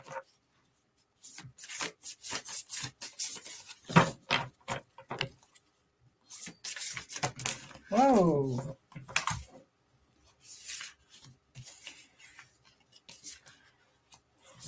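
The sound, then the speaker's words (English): Crisp riffling and snapping of playing cards being shuffled in repeated bursts, with short pauses between, and a brief exclamation from a voice partway through. “That we need to shuffle these a little more.”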